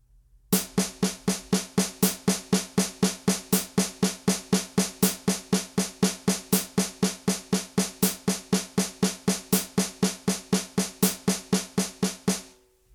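A steady, even stream of crisp drum strokes played alone at a slow, regular pace, the notes subdivided into sextuplets of six per beat, continuing unbroken for about twelve seconds.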